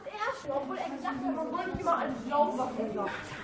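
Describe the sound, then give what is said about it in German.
A noisy crowd of schoolchildren's voices overlaps continuously, with shouts and chatter, as many pupils play in a schoolyard during break, some eating watermelon. “Draußen ganz viele Schüler und die spielen. Machen Krach, essen Wassermelone.”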